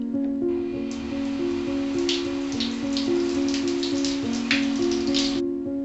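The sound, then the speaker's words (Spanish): Shower water runs steadily, a continuous patter and spray of droplets hitting a hard surface, with soft sustained musical tones playing underneath throughout, as a person showers at half past eleven in the morning before going out. “Eran las once y media de la mañana así que se fue a tomar una ducha para salir temprano y regresar antes que él.”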